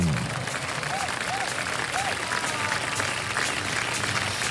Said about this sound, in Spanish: Ay, cuántos aplausos, güey.